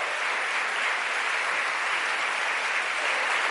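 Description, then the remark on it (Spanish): A crowd claps loudly and steadily for several seconds, applause given to the Lord during a church service, a dense, continuous wash of many hands applauding together with no voices standing out. “Démosle ese aplauso fuerte al Señor.”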